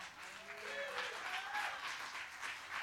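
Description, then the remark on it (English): Soft, scattered applause from an audience, polite and subdued rather than enthusiastic, with a faint voice briefly audible underneath. “You see, that's a clap for Tiger Woods on a golf course.”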